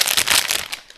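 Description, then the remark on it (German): Busy crinkling of a plastic chocolate packet, a rapid run of crackly rustles that fade out toward the end, with no voices. “Das war das Geräusch der Packung Schokolade, die wir gerade in der Vorbereitung vernichtet haben.”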